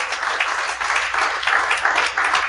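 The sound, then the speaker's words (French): Steady, dense applause from a show audience giving a round of applause to the show's co-host, a crowd clapping continuously and fairly loudly throughout with no pauses and no one speaking over it. “Bonne main d'applaudissement”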